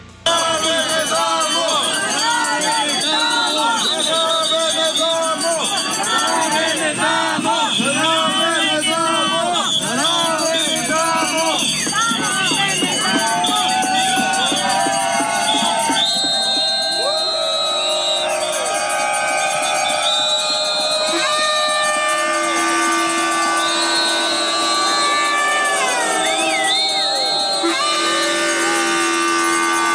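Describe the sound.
A large outdoor crowd of about 400 protesters, gathered in the rain, fills the scene with loud, continuous chatter and shouting; midway through, sustained high ringing of bells rises above the steady hubbub of many voices.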